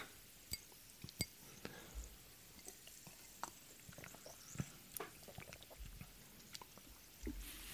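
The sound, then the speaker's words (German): Glasses clink together in a toast, a scatter of sharp, light chinks at irregular intervals, fairly quiet, with no talking over them. “Und ich sage einfach mal Prost in die Runde.”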